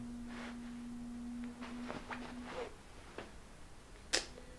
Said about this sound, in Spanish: Porque está vibrando mi teléfono.